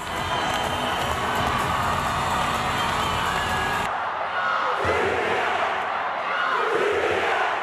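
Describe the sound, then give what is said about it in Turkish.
A loud, continuous roar of a crowd cheering and shouting in celebration after Turkey's women's national volleyball team beat Germany 3-0 in the European qualification final for the Tokyo 2020 Olympics, dense and sustained throughout, with voices rising and swelling in waves and a brief dip partway through. “3-0'lık galibiyet sonrası coşkulu bir sevinç vardı.”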